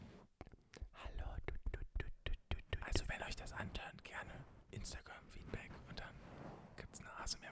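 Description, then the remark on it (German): A voice imitates ASMR whispering into a microphone, breathy and crackly with soft clicks and mouth noises, continuing steadily for several seconds with nothing else around it. “sondern die nehmen dann ihre äh, iPhone-Kopfhörer-Dinger so und schlimm. lecken daran rum. Also und, dann machen die so, hallo, tut, tut.”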